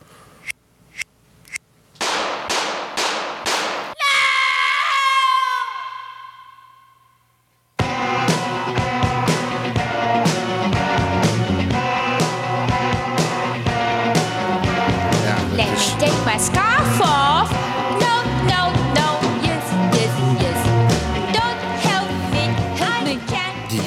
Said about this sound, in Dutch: vier schoten en, en eigenlijk een soort sireneachtig eh, geluid van, van eh, de muzikale begeleiding. Ja, dat, dat zegt wel heel erg veel.